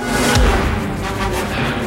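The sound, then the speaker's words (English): A heavy punch thud lands early as Indy throws punches in a film fight scene, backed by a sharp orchestral accent, with dense, busy orchestral music continuing loudly underneath for the rest of the moment. “As Indy starts throwing punches, without much effect, the music accents them here.”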